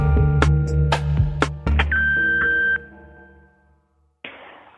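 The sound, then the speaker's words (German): After a few short musical plinks, a single steady telephone answering-machine beep sounds at the end of the recorded greeting, clear and fairly loud for about a second. It fades into near silence before a soft rush of noise starts. “10 Minuten habt ihr Zeit und reden könnt ihr nach dem Piepston.”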